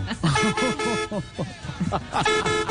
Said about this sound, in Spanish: Oiga, oiga, oiga. Único claxon en el mundo.